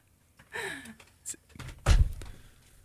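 An office chair sinks down abruptly, as it does every time, with a single solid thunk, preceded by brief rustling and a short vocal sound, then a quiet tail.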